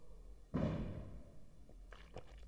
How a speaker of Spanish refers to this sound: Hay cohetes, por cierto, no sé si se escuchan. No podemos hacer nada contra eso.